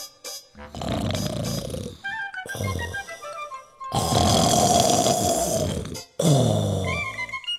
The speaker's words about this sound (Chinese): 鼾声大的窗户都震颤了。